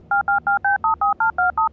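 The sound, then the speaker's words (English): A rapid series of about eleven touch-tone beeps as a phone number is dialed to call an agent, each short dual-pitched tone evenly spaced with brief gaps, clear and steady with no voices. “Let's call his agent.”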